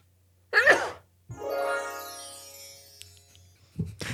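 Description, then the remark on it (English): One sharp sneeze bursts out, followed right away by a bright chime added as an edited effect, which rings and slowly fades, then a short breathy sound at the end. “I gotta sneeze. Sneeze.”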